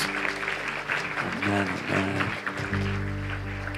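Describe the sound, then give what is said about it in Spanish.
A church audience claps steadily for new converts, a dense, continuous patter of many hands, with sustained low musical tones playing underneath. “Que nos demos un aplauso a nuestros nuevos hermanos.”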